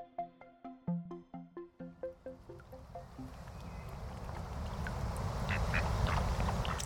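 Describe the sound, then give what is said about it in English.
Outdoor riverside ambience on an old footpath by the River Lagan between Belfast and Lisburn, Northern Ireland, opens with a rapid run of about a dozen duck quacks, then gives way to a steady rushing wash of water and breeze with scattered small clicks. “What you can hear now on the background is the sound from an old path by the River Lagan connecting Belfast and Lisburn.”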